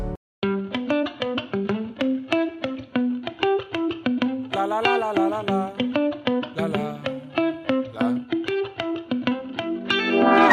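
An upbeat Italian pop song plays, with a steady driving beat, bright layered keyboards and guitar, and a fuller, busier passage midway before the rhythm settles back into repeating pulses.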